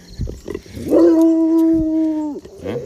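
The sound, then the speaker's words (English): A neighbor's dog gives a few quick barks, then lets out a loud, steady howl lasting over a second before it drops off, followed by more short yips. No one speaks. “Neighbor dog just came out.”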